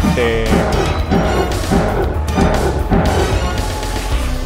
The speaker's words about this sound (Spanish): es como una especie de puñetazo que lo envía hacia los cielos básicamente.